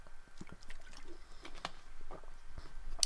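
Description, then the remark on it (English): Someone drinks water: quiet sloshing and a few soft gulps or swallows at irregular intervals, with no talking. “A lot of talking, a lot of water.”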